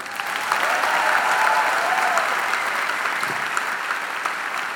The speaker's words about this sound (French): Et c'est pour ça que j'aimerais qu'on t'applaudisse.